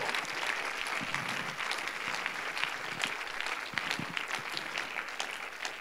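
Steady applause from an audience at a church service, many hands clapping in a dense, continuous patter at moderate loudness with no one speaking over it.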